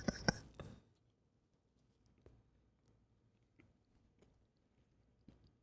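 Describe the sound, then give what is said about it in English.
Chewing of a Boston cream donut: a loud bite at the start, then quiet, soft mouth sounds and occasional faint smacks continuing for several seconds. “Do you think people want to hear us chew?”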